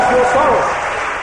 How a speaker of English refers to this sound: Give the Lord a shout and a clap of the sorrow blessing that